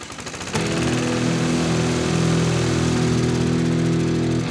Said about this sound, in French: Voilà, par exemple, passer la tondeuse, le réflexe de base quand on a un jardin, et eh ben en fait c'est n'importe quoi